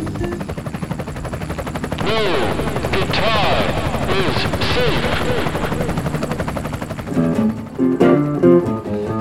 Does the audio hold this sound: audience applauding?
no